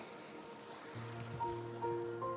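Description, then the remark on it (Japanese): Quiet seaside ambience at Hayama, Japan, on a cloudy, cool day with a slight wind: a steady, high insect trill rings continuously over a soft wash of surf, with faint low humming tones drifting in partway through. No one speaks. “今、海辺に来ていて”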